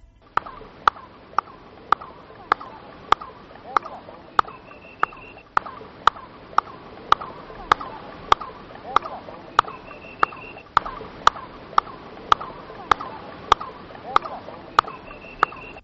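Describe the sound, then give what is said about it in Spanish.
Sharp handclaps at a pyramid repeat steadily about every 0.6 seconds, each followed by a quick chirping echo from the pyramid's stones that sounds like a bird call, with faint murmuring voices in the background. “Vamos a pedir que nos quiten la música, vamos a escuchar esa palmada e inmediatamente después de la palmada el eco que se escucha parece un pájaro, un pájaro que empieza a cantar.”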